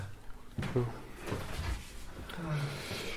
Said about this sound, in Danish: Det var fandme et smart køleskab, det her. Man tror jo bare, det er en skuffe.